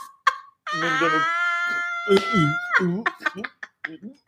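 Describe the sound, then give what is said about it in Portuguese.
A person deliberately imitates the sound of scratching the throat, like a cat coughing up a hairball: a strained, raspy drawn-out sound followed by several short guttural bursts, fairly loud. “tem gente também que coça a garganta, a gente descobriu isso, horroroso.”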